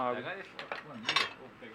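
Cutlery clinks against a plate in a few quick, bright taps and scrapes, with murmured voices underneath throughout.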